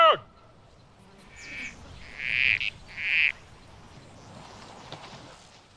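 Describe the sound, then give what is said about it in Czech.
After a brief human call at the very start, corroboree frogs answer with a few short, grating, buzzy croaks in quick succession, moderately loud against a quiet outdoor background. “Ano, jsou to vlastně paropochy korobory,”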